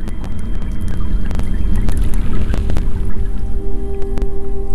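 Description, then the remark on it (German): A continuous deep underwater rumble of churning seafloor currents and underwater storms, with a dense low roar, scattered sharp clicks and knocks, and a steady faint tone, recorded by hydrophone in Canada with no voices. “Wellen und Winde sind unter Wasser lautstark zu hören, aber auch Strömungen und regelrechte Unterwasserstürme am Meeresgrund, die alles mit sich reißen.”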